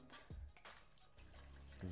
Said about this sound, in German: Ähm, wir werden jetzt hier ein bisschen Wasser reinfüllen. Äh, Waage mal an, dann werden wir hier ein bisschen Wasser reinfüllen.